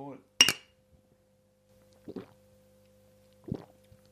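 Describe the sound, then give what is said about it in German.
Beer glasses clink together once in a sharp, ringing toast near the start, followed by two softer clunks and rustles a few seconds apart, as if the glasses are handled or set down. “Zum Wohl, mein Lieber. Prost.”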